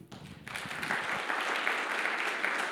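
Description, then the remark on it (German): A church audience bursts into applause for the worship team, dense steady clapping from many hands that starts abruptly after a brief low rumble and stays loud and sustained. “Ich möchte einfach mal, dass wir jetzt einen fetten Applaus nochmal ins Lobpreisteam geben, dass sie uns hier gedient haben.”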